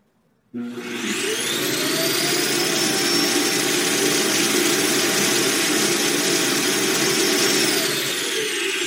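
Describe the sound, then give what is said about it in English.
A robot vacuum's base station kicks on abruptly and empties the bin with a loud, steady, whining suction roar that holds for about eight seconds, with no talking. “all right, so I'm going to empty the bin for y'all.”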